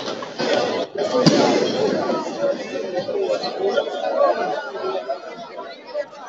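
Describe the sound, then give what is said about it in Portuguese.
Football fans celebrating in the street: dense crowd chatter and shouting fill the scene, with one sharp bang like a firecracker popping early on amid the steady noisy din. “Olha aí a, a festa da torcida. Tomando aquela, né, cara? Comemorando.”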